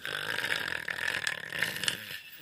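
A single long, rasping snore from Figarino taking a little nap in a reading armchair: a rough, buzzy breath that drones steadily for about two seconds before trailing off, with no talking over it.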